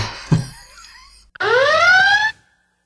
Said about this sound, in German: Naja gut, da brauchst du jetzt keinen Spoiler-Alarm machen. Aber ich tue das Geräusch so gern rein.